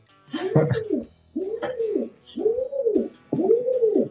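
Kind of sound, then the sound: bird, pigeon cooing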